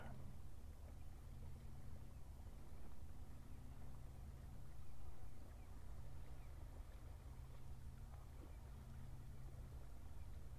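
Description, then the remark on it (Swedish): A low, steady boat engine drone hums far off across open water, a continuous rumble with faint ambient wash and no voices. “Ljudet från en avlägsen båt.”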